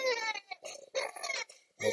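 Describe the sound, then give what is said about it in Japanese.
A baby cries in loud, high-pitched wailing bursts, about four strained cries broken by short gasping pauses, with no other voices. “うわーめっちゃ泣いてる。”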